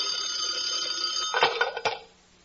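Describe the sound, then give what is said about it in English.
An old-fashioned telephone bell rings in one continuous metallic burst, loud, with a couple of sharper clangs near the end before it cuts off. No one speaks. “Suddenly the phone rings.”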